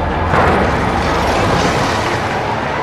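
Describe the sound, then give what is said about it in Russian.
A loud volley of gunfire from a Polish fortress at enemy knights of the Teutonic Order fills the whole stretch, the shots blurring into one dense, rumbling crackle that swells slightly early on and holds steady without pause. No voices are heard. “А вот теперь разом по врагам огонь!”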